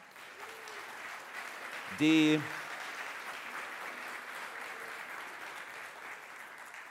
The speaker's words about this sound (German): Gibt man Applaus für die Lehrerinnen und Lehrer